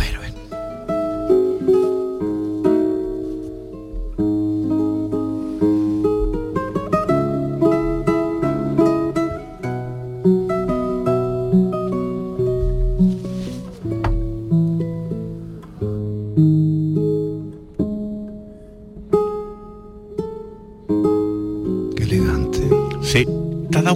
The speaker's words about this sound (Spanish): Fíjate, vamos a escuchar un poco cómo suena este tipo de guitarra. En esta ocasión, la denominada Invencible en manos del guitarrista Carles Trepar.